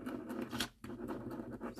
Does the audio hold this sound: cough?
no